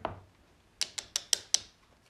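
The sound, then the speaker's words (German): Five quick, sharp plastic taps of a wide, light green and white Lego brick against a floor, evenly spaced in a brisk rhythm, clicky with no talking. “klopft damit mal so auf den Boden.”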